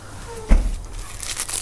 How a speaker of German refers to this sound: Ja, du raschelst mit der Taschentuchverpackung, von daher ist das für mich eindeutig ein Beweis. Steht drauf, soft und sicher.